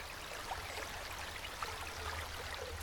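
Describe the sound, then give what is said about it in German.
A steady, rushing wash of river water flowing continuously, with a low rumble underneath and no voices. “gehen wir einmal den Fluss anschauen.”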